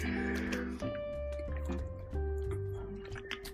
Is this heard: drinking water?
yes